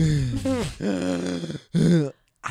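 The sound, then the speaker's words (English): A voice imitates heavy, exhausted breathing in a few loud, strained bursts, with groaning, gasping breaths separated by short pauses and a final clipped breath at the end. “I was like, yo, you were really breathing like that.”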